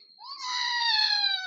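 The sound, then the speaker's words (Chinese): A single drawn-out, high, wavering meow: a human voice imitating a cat crying in pain after someone pulls its tail, rising briefly and then holding a strained, whiny tone for over a second. “这个猫咪好伤心的叫，是不是啊？”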